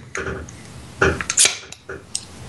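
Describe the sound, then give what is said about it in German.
A beer bottle being opened: a few glassy, metallic clinks and taps, then a short sharp hiss from the cap, followed by a couple of lighter clinks. “Ich werde jetzt mal meins aufmachen.”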